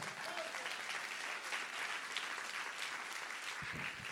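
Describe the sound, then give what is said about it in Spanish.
An audience claps steadily as applause to the Lord, a dense, even wash of many hands that holds at a constant level for several seconds, with a brief murmur of a voice near the end. “Dale aplausos al Señor.”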